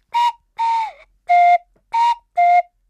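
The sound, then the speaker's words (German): A cuckoo flute whistle, played with a finger over the hole at its bottom, plays five breathy, hollow toots in a steady rhythm, alternating between a higher and a slightly lower pitch like a cuckoo's call, with nothing else audible. “Und dann habe ich noch so eine Kuckucksflöte mitgebracht.”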